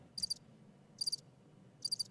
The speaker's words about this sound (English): Wow, that's not the crickets that I expected to hear. Um, that was not a very. I need a new crickets sound there.